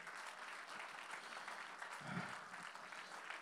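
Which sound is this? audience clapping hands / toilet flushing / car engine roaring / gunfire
audience clapping hands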